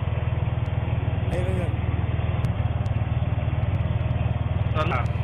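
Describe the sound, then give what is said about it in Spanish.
A small motor vehicle engine idles with a steady, throbbing low rumble that runs the whole time, while a few brief, faint voices come through over it. “Ese es el tractor, ¿no? Están aportando yardas. Un carrito de golf”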